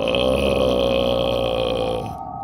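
human body sound, loud burp

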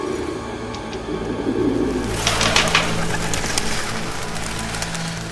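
bird, pigeons cooing

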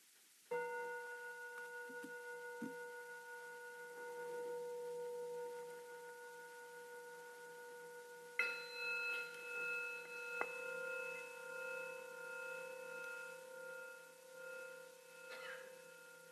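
signal or alarm, bells ringing

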